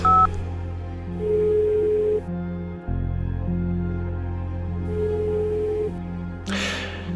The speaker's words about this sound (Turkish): Bu ihtimal yine yumuşatıyor kararımı bu kez evinin telefonunu çeviriyorum.